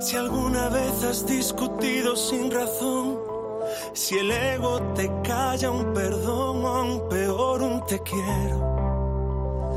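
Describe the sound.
A rap song with sung vocals plays loud and close, melodic voices riding over steady bass and full instrumental backing that shifts in texture partway through.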